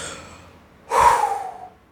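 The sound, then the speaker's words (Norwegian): A voice imitates heavy, breathless panting, as just after stepping off a stage with hands on the thighs: a single loud, breathy gasp or exhale after a brief quiet moment. “Da var det liksom henda på lårene og puste og bare være sånn herre”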